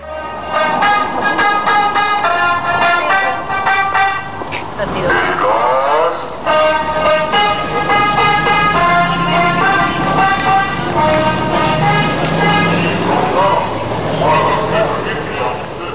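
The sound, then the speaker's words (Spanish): A street scene a few thousand kilometres north of Valparaíso, Chile, where a gas delivery truck's horn toots again and again in bright, tonal bursts over steady traffic noise, with a dog barking briefly partway through. “Y este es otro camión de gas a unos miles de kilómetros hacia el norte.”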